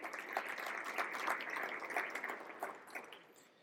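An audience applauds the team of Exobite, a firm from Zaragoza, steadily for a few seconds, a dense, crackling wash of clapping hands that tapers off toward the end, with no voices over it.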